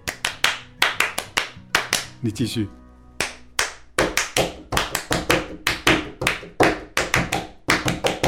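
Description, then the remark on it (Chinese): Sharp, loud hand claps in the 'love's encouragement' (爱的鼓励) clapping rhythm, a repeating pattern of quick grouped bursts separated by short pauses, briefly interrupted once by a spoken voice before the clapping resumes. “鼓励的掌声 啊，对，爱的鼓励， 你可以打吗？”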